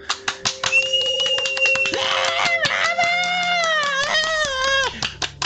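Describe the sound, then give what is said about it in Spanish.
Loud applause of sharp, rapid claps bidding farewell to a guest of a program runs throughout, with high whistle-like tones rising and gliding over it and no clear speech. “Fue un placer y pues desp despidámosla con un fuerte aplauso,”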